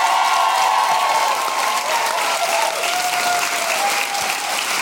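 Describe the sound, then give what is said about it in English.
A crowd applauds loudly and steadily for about five seconds as Susan Calman is introduced, dense clapping with scattered whoops and cheers rising above it, holding at a constant level throughout. “and gentlemen, give it up for the wonderful Susan Calman.”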